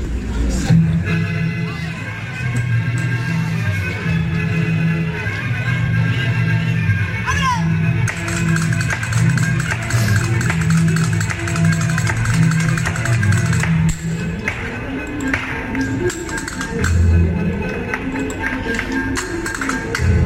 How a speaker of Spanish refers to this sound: taconeo y vaya brío